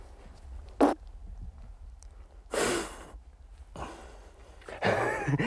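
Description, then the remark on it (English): Four irregular, breathy fart-like bursts of escaping air, sputtering and hissing, separated by quiet gaps, with the last two longer and noisier; a hunter on the ice presses blood out of the shot hole of a dead seal, making it give off the sounds. “Meanwhile, he is pressing blood out of the shot hole and can't help giggling like a little boy when the seal makes sounds like farts.”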